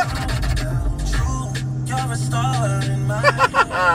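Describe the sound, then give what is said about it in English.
A steady, low engine rumble fills a car interior while driving, with brief muffled voice-like sounds rising over the hum toward the end. “hey, man, I'm just in the car having fun.”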